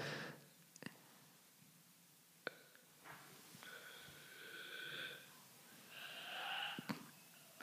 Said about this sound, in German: oh Gott, da hustet ja. jemand.